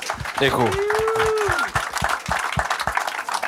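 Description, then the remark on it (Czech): A crowd breaks into steady applause for fencer Aleksandr Šupenič's Olympic medal from Tokyo, a dense wash of clapping that carries through the whole stretch, with a sustained cheer or whoop from one voice rising over it early on. “To si zaslouží, myslím, potlesk, ne?”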